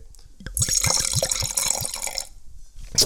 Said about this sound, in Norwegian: Jeg må helle i glasset, for dette her har jeg ikke vært borti.